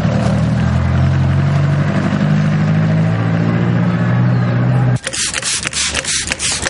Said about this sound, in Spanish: Al poco corre hacia un autobús que la espera en la calle principal del pequeño pueblo enclavado en una montaña. El vehículo arranca y se va.